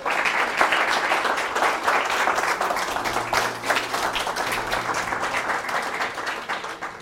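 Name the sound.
louder audience applause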